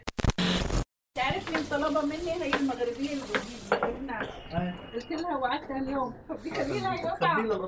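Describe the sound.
Macaroni with onion, vegetables and minced meat sizzles steadily in a pan in a kitchen during a Friday cooking session, a constant hissing crackle running the whole time beneath a person talking, with faint clinks of cookware now and then.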